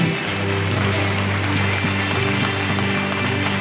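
audience applauding loudly

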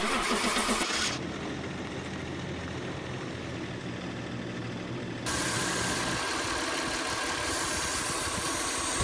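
car engine cranking

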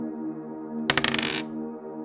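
dice being rolled

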